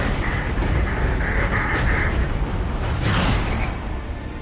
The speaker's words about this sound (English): That was actually that's the, uh, the asteroid cannon that's meant to blow up the. Uh, any incoming asteroids.